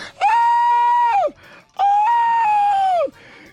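Two long, loud, high-pitched screams in a woman's voice, a speaker imitating a mother-in-law screaming as her legs are cut with a saw. Each is held steady, then drops sharply at the end, with a short pause between them.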